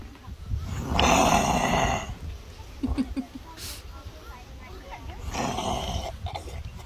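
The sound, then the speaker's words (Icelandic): A kangaroo vocalization: two loud, raspy, snore-like grunting bursts about four seconds apart, with a few short, quieter clicking grunts in between. “Þeir eru greinlega ekki hrifnir uh, Ástralíur af hljóðum kengurunar en það vissi ég svo sem ekki uh, hvernig þau væru og, og leik mér forvitni á að, að hlýða á, hlýða á söng kengurunar og, og hann er vist svona.”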